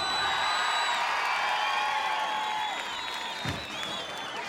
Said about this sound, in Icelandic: gefum henni gott klapp.